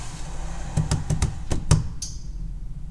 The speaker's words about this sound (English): I just wanna I wanna pause. Sorry, we are at this location where the door opens and closes constantly.